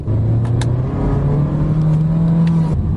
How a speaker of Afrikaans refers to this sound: Maar die gebrek aan krag teen lae toere en die CVT outokas. Hy toere met 'n lawaai die hoogte inskiet wanneer jy voet neersit.